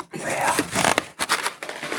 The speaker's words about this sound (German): Also, nein, nimm die Seite, nimm das Blatt Papier, leg es, genau, mit der Schrift auf das Glas. Jetzt drück den Kopierknopf.